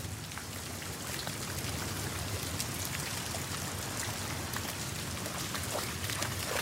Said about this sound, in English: the little things you begin to hear are just wonderful. There's motorbikes and there's people chopping wood and, and there's birds, but you, you hear things like the dripping of the forest after rain.